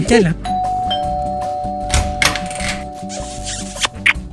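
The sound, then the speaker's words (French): A doorbell rings with a sustained electronic tone that holds for a few seconds, while people's voices murmur over it. “Et s'il habitait plus proche de nous, bah, j'irais très régulièrement sonner à sa porte pour lui faire”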